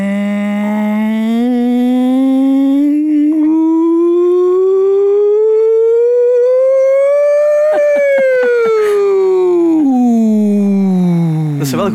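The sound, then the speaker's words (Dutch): A single voice imitates a wailing siren like the ones tested on the first Thursday at nuclear plants, one sustained tone sliding slowly upward, holding high, then sweeping back down over about twelve seconds, loud. “die sirenes op eh, elke, elke, eerste donderdag, wanneer dat de sirenes testen van, van eh, kernfabrieken en dat soort toestanden.”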